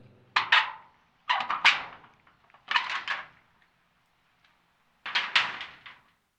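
A window handle turning to the right and the window being opened, heard as four short bursts of rattling, scraping noise separated by brief pauses, with no one speaking.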